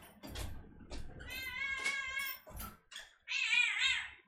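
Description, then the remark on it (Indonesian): A cat meows several times as it is being let outside, with drawn-out, wavering cries, the last one loud and whiny, over soft rustling and thumps in between. “bentar gue ngeluarin kucing gue keluar keluar keluar keluar keluar”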